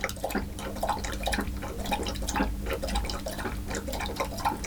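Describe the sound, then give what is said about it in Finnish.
A dog laps up water in a quick, steady rhythm, each wet splashy lap clearly audible over a low background hum, with no voices. “Nyt on hyvä, että sä koira juo.”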